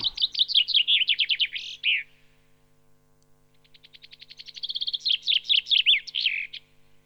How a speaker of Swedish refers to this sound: Och bofinken den, den eh, kommer ju väldigt tidigt på våren också. Det är en fröätare, kommer tidigt.